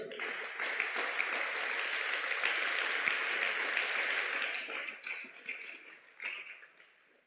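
A church audience claps for the pastor's family, who help him in the church, in a dense, sustained wash of applause that holds for about five seconds, then breaks into scattered bursts and fades out.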